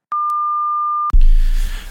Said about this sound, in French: vous êtes bien sur le répondeur du Opération Bikini Vous pourrez enregistrer votre message juste après le bip sonore.